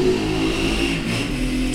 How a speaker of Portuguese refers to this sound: Olha a moto no fundo passando, que provavelmente, não, como não vai ter edição, vocês vão ver. E as motos só passam aqui quando eu começo a gravar.